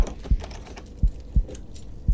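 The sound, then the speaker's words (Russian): A key turns in the lock of a corridor door and a door bolt slides shut, a handful of sharp metallic clicks and clunks spaced out over a couple of seconds, with no voices. “К счастью, ключ был с этой стороны. А еще для верности я задвинул засов.”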